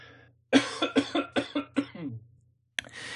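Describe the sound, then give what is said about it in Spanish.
A rapid fit of about five harsh coughs in quick succession, fairly loud, tapering off, followed by a short pause and one more burst. “perdón, que toso.”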